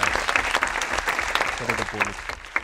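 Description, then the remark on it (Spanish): Canned audience applause: a dense, steady wash of many hands clapping at moderate loudness, with a brief voice rising over it midway before the clapping thins toward the end. “Muchas gracias público, de verdad que estáis en el estudio, público de mentira que estáis grabados y que sigas aplauso para mi compañero”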